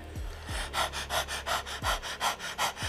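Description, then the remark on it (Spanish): As a breathing exercise, a person imitates a dog's panting with the tongue out: quick, rhythmic breathy huffs in and out, about four per second, steady and fairly loud, with no speech. “O por ejemplo, otro ejercicio muy gracioso es respirar como respiran los perros, sacando la lengua.”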